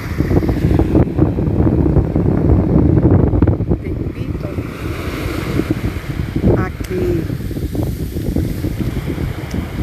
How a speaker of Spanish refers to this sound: igual que el agua va y viene, toca la arena bajo mi pie